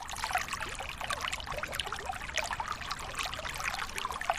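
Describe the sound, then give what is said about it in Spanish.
Spring water wells up from a spring, bubbling and trickling steadily, a continuous babbling flow with fine splashy detail, moderately quiet, with no voices. “Cuando brota el agua de un manantial, no sabe qué camino va a tomar.”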